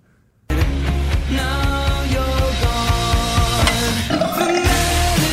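A long, loud burp that sounds electronically boosted and distorted, starting abruptly and rumbling on as a harsh, buzzing drone for about five seconds with no talking.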